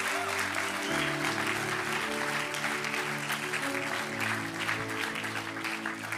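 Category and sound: crowd, audience clapping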